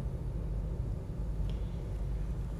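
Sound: car interior rumble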